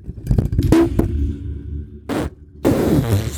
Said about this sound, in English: So that was an equipment failure that right was. there, guys. What you heard was live. was some real live Literally, shit. my microphone jumped off of the table and onto the floor.